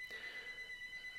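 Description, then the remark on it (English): A telephone rings with a steady, high electronic trill that warbles rapidly throughout, fairly quiet and heard on its own with no talking. “Pardon the phone ringing.”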